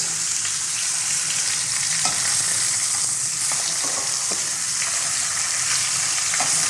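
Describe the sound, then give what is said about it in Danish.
Steady, loud sizzling of meat searing in a hot pan for about 45 seconds a side until it forms a browned crust, a dense crackling hiss with occasional sharper pops and spits, continuous with no voices. “du kan måske lige prøve at fortælle, hvad man kan se nu at den har fået en stegeskorp på den her kort.”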